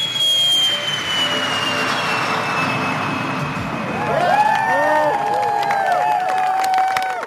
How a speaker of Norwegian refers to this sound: Romskipet har nå for første gang tent rakettmotoren, og med den tenningen ble farkosten det første kommersielle flyet til å bryte lydmuren siden Concorde-flåten ble satt på bakken.